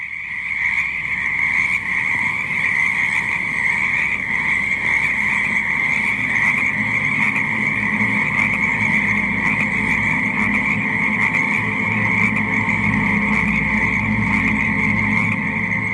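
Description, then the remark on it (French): A dense chorus of frogs croaking steadily and continuously in a pond, layered calls overlapping loudly throughout with no pauses and no voices. “Coassement.”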